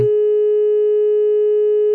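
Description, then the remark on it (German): A steady, unbroken telephone line tone while dialing a phone number, holding at a single mid pitch for about two seconds, loud and constant, with faint harmonics and no voices. “Jetzt muss piepen.”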